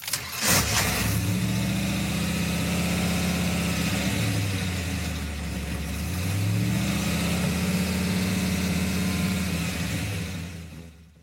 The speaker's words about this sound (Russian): И потом мне безумно запомнился момент, когда после э, диалога с сыном Кэрол Шелби садится за свою машину и закрывает глаза и слушает звук двигателя.